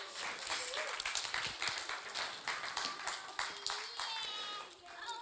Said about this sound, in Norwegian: Ok, Ok, Tusen takk. Da kan dere sette dere ned. Gi dem en applaus.